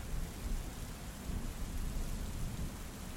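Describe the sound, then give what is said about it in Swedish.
Steady, dense rain pours down while a deep, low thunder rumble rolls continuously underneath, a full stormy wash of sound with no voices present, in a thunderstorm with wind and lightning over wet trees. “Vinden tjöt och de våta träden droppade. Och blixtrarna! Heliga San Lorenzo som det blixtrade.”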